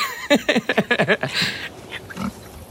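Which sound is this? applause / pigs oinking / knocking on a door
pigs oinking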